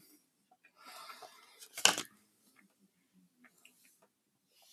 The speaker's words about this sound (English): I don't know whether you can hear me chewing the grapes, but I'm going to just pause this uh, clip right now. Enjoy these things properly. I don't want everybody to just hear me chewing them throughout this thing.